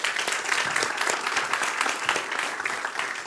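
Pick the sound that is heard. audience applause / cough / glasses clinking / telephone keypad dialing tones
audience applause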